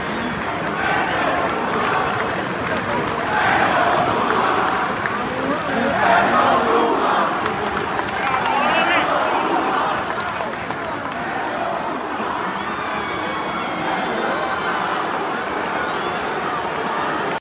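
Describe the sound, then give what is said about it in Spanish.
A large wrestling arena crowd at SmackDown shouts and roars as Dominic enters to help Finn Balor, a continuous dense wall of voices at steady high volume, with scattered claps and whistles breaking through the din. “entonces el público empezó a gritar,”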